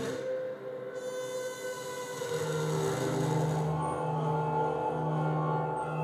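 An eerie experimental instrument made with rulers, a reverb tank and an EBow drones continuously, with sustained bowed-sounding tones, shimmering metallic overtones and a lower pitch swelling in partway through, all washed in heavy reverb. No one speaks.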